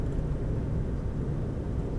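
Steady low rumble of a car interior while driving, a constant engine and road drone filling the background with no voices.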